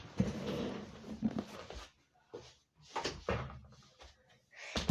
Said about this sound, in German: Ich muss kurz die Tür zumachen.